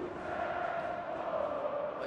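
A football stadium crowd comes alive in the stands as a corner kick from the left is taken, a dense, steady roar of many voices with a sustained chant-like tone running through it for about two seconds, fairly loud and unbroken.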